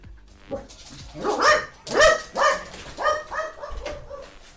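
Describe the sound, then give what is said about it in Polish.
A dog barks repeatedly, about five or six sharp, loud barks in an uneven rhythm, with a few softer whiny yelps trailing off at the end. No one speaks. “I pies szczeka nawet na koniec.”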